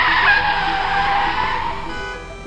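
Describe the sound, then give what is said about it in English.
A car's tires screech loudly in a long, sustained skid in traffic, a harsh high squeal that holds for a couple of seconds before easing off slightly, with no voices present. “Where did all this traffic come from?”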